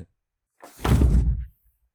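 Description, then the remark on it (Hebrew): A single heavy, muffled thud with a brief rumbling tail as a black horse collapses onto the ground, heard alone with no voices. “נראה לי שעוד רגע הוא נופל.”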